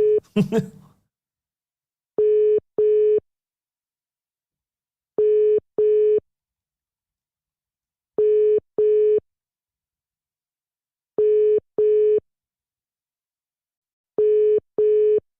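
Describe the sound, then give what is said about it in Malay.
An outgoing WhatsApp call rings unanswered: a steady double-pulse ringback tone repeats about every three seconds, five cycles, after a brief rustle at the start. “Saya cuba untuk call dia sekejap Call using WhatsApp Habis langsung border tak nak angkat telefon lah.”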